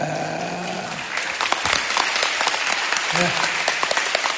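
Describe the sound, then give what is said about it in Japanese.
Sustained applause from a sizable audience at the end of a talk held on a typhoon day, a dense steady patter of many hands clapping, filling the whole stretch with a brief faint voice underneath. “あ拍手いただいて嬉しい”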